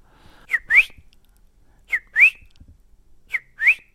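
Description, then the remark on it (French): A person whistles an imitation of a greenfinch call: three clear pairs of rising notes, each a short chirp followed by a longer upward sweep, spaced evenly with quiet gaps and no talking. “En fait, les gens, ils savaient pas dire euh, qu'est-ce qui sifflait, c'était l'oiseau ou moi, on savait pas.”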